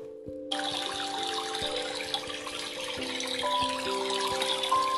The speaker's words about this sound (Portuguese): Que maravilha! As florzinhas ficaram tão alegres com a chegada da chuva. Elas olhavam para o céu agradecidas e a gatinha Cessi ficou feliz da vida vendo seu jardim novamente todo florido.